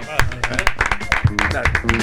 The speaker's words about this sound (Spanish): Bueno, pues un aplauso.